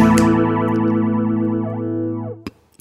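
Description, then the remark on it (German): An electric guitar chord rings out through a flanger pedal with depth and rate both turned fully up, its whooshing comb-filter swirl rising and falling steadily before the note cuts off with a couple of sharp clicks. “Jetzt dreht er noch die Raid auch noch voll auf. Death und Raid ist voll aufgedreht.”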